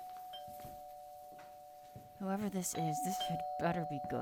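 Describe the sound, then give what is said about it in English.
A doorbell buzzes in one steady, unbroken tone throughout, soon joined by a voice talking over it in the second half. “Quit ringing the bell before I call the.”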